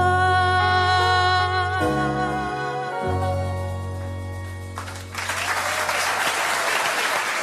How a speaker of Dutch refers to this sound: Ja, dit zong ze oorspronkelijk een keer bij De Wereldrijd Door. Vandaar het applaus op het eind.